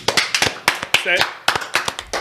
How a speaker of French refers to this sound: Wow, sincèrement, ça va une clap. Yeah! Hey, c'est... Applaudis! Applaudis.